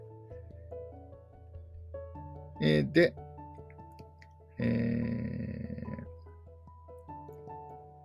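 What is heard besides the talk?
washing machine running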